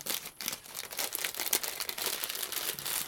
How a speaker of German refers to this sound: Aber diese Salzbrezen, ne? Ich knister mal.